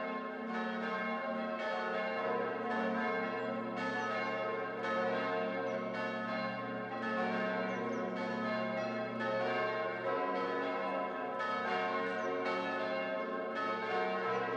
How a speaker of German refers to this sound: Von denen gibt es heute noch sechs Glocken aus dem Mittelalter, also so um 1280 bis 1318, 1319, die täglich geläutet werden.